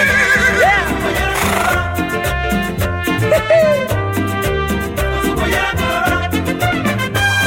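A horse whinnies once near the start, its wavering call riding over loud, upbeat music with steady percussion and bass that carries on to the end.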